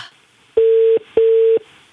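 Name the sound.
telephone ringing tone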